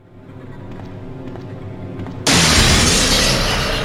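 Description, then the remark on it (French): A low, rumbling ambience with faint scattered ticks gives way to a sudden, loud crash of breaking glass as a creature in a video game bursts through a window, the harsh noise sustained to the end. “Je crois qu'effectivement il va passer par la fenêtre.”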